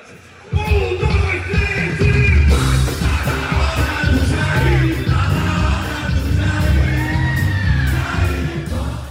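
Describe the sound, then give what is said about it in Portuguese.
A large outdoor crowd of Lula supporters roars and cheers loudly and continuously at a stage on Avenida Paulista, celebrating his victory on the day of the second round, with scattered yells and whoops, while a singer performs over amplified music that carries through the din. “cantou para uma multidão”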